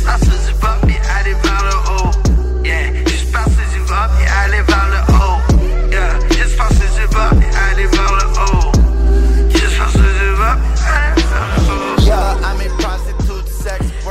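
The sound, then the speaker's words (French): Loud, bass-heavy music with a booming low end and punchy kicks, dense layered synths and melodic lines over a steady driving beat, with no one talking. “très lourd. Tu sais, la, grosse baisse, on dirait que ça s'écoute fort.”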